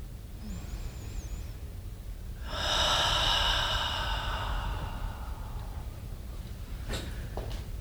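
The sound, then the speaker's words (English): A single long, deep breath drawn from the abdomen during a guided relaxation exercise, rushing and airy for a few seconds before trailing off into quiet room noise, with no talking. “And I invite you to take at least three deep, refreshing breaths, breathing from your abdomen and releasing, if you want to, just even sound that says, Yes, I'm letting go.”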